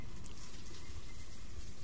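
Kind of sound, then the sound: household object, shower water running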